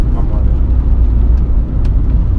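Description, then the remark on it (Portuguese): A steady low rumble of exterior road noise heard from inside the speaker's moving car while recording, loud and constant, with a few faint brief clicks over it. “achei que a ideia de gravar no carro poderia ser boa, mas iria ter um pequeno problema, que seria talvez os ruídos exteriores”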